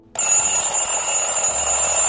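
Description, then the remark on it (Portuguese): An alarm clock rings loudly and continuously, a bright metallic clatter of rapid bell strikes starting abruptly and sustaining without pause. “Então agora vamos direto para o nosso despertador. Toca o despertador aí, gente.”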